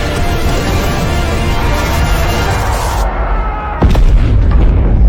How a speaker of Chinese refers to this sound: 本来他感应到危险后已经飞速赶来，却被海神的舰队误以为是敌人，好一通炮击。